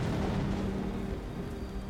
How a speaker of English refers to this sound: You jump a little as this huge crack this peal of lightning splits the sky, and the, the boom um, hits you a few moments later.